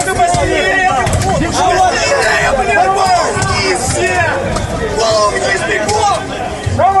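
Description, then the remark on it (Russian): Dull, heavy thuds of police baton blows land repeatedly amid a loud, chaotic crowd of shouting voices at the Okrestina detention center in Minsk, Belarus, the impacts partly buried under the constant yelling and commotion. “Вот эти глухие звуки это удары милицейских дубинок”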